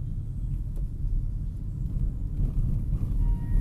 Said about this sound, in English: I'm in the traffic, but I turned the volume down.